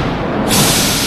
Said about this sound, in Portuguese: Eita, Gente, isso, isso foi um trovão, isso ok? Foi um trovão.